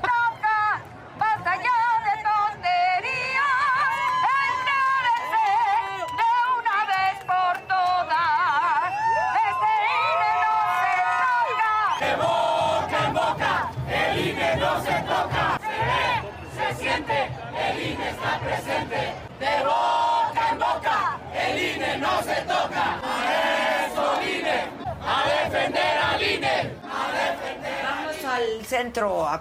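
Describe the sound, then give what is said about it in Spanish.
A large crowd shouts the name Casarín over and over in loud, rhythmic chanting. Many voices rise together, blending into a dense, energetic roar that grows more intense partway through. “Todo el mundo estaba gritando Casarín.”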